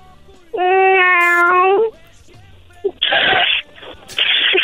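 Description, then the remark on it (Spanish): A person, asked to make the sound of a cat, imitates one with one long, drawn-out vocal meow, followed by a couple of sharp, breathy hissing bursts, loud. “Haz, haz el ruido de un gato.”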